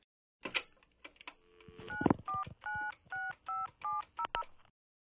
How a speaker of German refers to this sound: Moment mal, ich ruf mal Elbes Angela an.